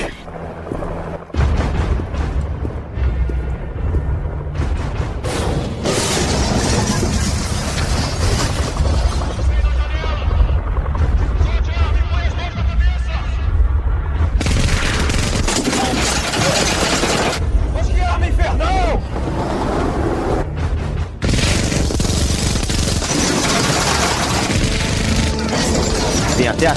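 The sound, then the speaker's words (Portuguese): Sustained, roaring bursts of rapid machine-gun fire mixed with heavy explosions and crashing metal, loud throughout nearly half a minute, with brief pauses between barrages: Arnold fires a rotating machine gun into police cars at Cyberdyne, then blows them up with a grenade launcher. “topo e aí o Arnold pega essa metralhadora giratória e descarrega no, nos carros de polícia e depois explode eles com a, com a arma de lança-granada e não mata ninguém, tem zero vítimas.”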